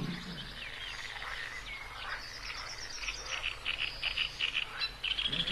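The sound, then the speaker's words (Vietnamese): Deep hippo calls rumble low beneath a chorus of repeated African bullfrog croaks and insect-like trills, steady and moderately loud in a swamp in Africa with no voices. “Trong đầm lầy, tiếng kêu của hà mã hòa chung với tiếng kêu của một trong những loài lưỡng cư kỳ lạ nhất ở châu Phi, ếch yêu tinh.”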